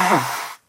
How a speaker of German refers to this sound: Ähm, ich konnte es überhaupt nicht richtig äh, nachvollziehen, ob das jetzt Niesen oder äh, Husten oder so war. Scheiß Telefon. Es war Naseputzen. Ach so, Naseputzen.